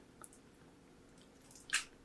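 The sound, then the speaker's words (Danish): A single crisp, wet crunch of a bite into a candy apple, preceded by a faint smacking click, with no talking. “Du, Men skal, så du skal jo have et bid, hvor du også får noget æblet med, sådan her.”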